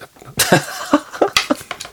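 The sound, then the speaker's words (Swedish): A burst of coughing: one harsh cough followed by several shorter, rasping coughs in quick succession, like a small coughing fit. “Får du en hostattack nu om den här börjar närma dig?”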